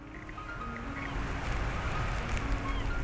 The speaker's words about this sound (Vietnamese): Biển đêm thật đẹp Em mỉm cười ngắm nhìn Tôi cũng ngồi lặng theo tiếng sóng xô bờ Bên cạnh em Mọi thứ thật bình yên